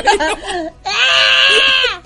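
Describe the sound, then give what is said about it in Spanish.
A brief burst of talking, then a loud, drawn-out goat bleat sound effect lasting about a second, nasal and wavering, clearly above the voices. “Ahí pones el sonido de la cabra.”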